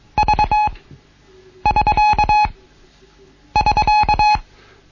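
The Morse code SK signal, the end-of-contact sign (Verkehrsende), sounds three times: quick clusters of steady, mid-pitched beeps, each burst separated by a short pause, with no voices.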